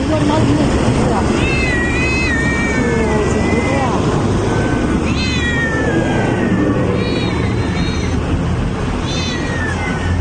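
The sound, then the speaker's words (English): Several house cats, confiscated from people's homes by the Chinese government and thrown in bags in China, meow and yowl in overlapping, high wavering cries that come in repeated bursts, over a constant loud rumbling, noisy background. “The Chinese government has also confiscated some huge but unknown number of house cats from people's homes, thrown them in bags, and left them on sidewalks to be killed.”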